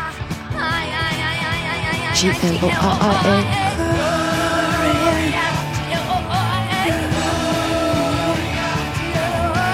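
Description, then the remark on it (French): A loud, dense rock'n'roll chorus with a full band playing steadily throughout, topped by a woman's strained, shouted vocals crying out a name, soaring and holding over the driving guitars and drums. “Il euh, y a ce, là on entend le refrain.”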